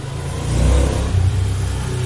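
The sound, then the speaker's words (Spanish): A vehicle engine revs up, a deep rumbling surge that swells and eases off, likely from a truck or motorcycle, with steady low engine drone throughout and no speech. “Están los perros ladrilados, están los camiones y una moto.”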